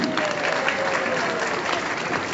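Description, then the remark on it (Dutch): A crowd claps steadily throughout, a dense, continuous wash of applause from a sizable audience, fairly loud, with no pauses and a faint murmur of voices underneath. “Dames en heren, jongens en meisjes, mag ik een applaus hebben?”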